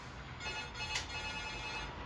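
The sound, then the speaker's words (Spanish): A telephone rings faintly in the background, its steady electronic tone sitting low beneath a wash of ambient noise for about two seconds, with no one speaking. “Hermano, por favor, el teléfono.”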